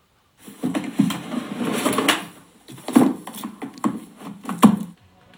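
A typewriter sound effect from a program's classic sound theme: the typewriter is packed back into its carrying case, a series of wooden clunks, rattles and knocks over a few seconds, with a couple of louder thumps and no talking.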